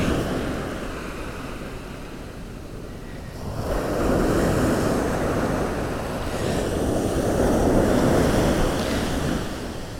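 Ocean waves at about high tide surge onto the shore at Gyllyngvase Beach on the outskirts of Falmouth on a clear morning, in broad, rushing swells, two louder breakers rising around four and seven seconds over a steady hiss of surf and light wind, with no voices.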